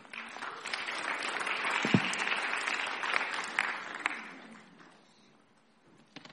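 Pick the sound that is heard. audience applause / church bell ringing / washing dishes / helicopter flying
audience applause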